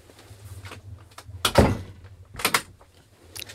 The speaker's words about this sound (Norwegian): måtte lukke døren.